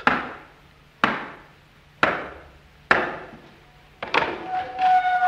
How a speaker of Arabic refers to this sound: الباب اهو الباب الاخراني وادي الاربع حلقات اما خبط عليه اربع خبطات